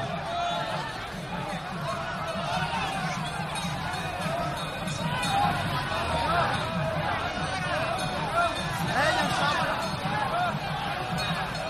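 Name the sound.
crowd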